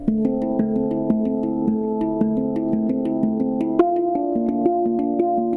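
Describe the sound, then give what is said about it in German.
A handpan rings out alone in steady, evenly spaced strokes, each note sustaining into the next with a warm, resonant shimmer, shifting to a new pitch partway through. “Das Instrument, das so klingt, heißt Handpan.”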